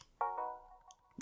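Game controllers snap together with two quick, close plastic clicks that ring briefly, then a final sharp click a moment later; no one speaks.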